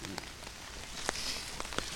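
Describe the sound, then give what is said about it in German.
Pouring rain over a community garden on the St. Jakobi cemetery in Neukölln, Berlin, makes a steady, dense hiss, with a few sharper drops landing now and then. It is constant, and nobody speaks. “Er führt auch bei strömendem Regen übers Gelände.”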